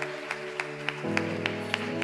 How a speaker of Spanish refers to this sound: Dele el aplauso mejor de ahí al Señor.